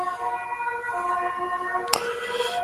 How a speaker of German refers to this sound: Ja, falls man hier gerade Blaulicht hört, tut mir leid. Kann man nichts machen. Hamburg halt.